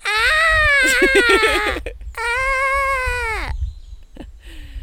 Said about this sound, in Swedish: lamm låter väldigt likt spädbarn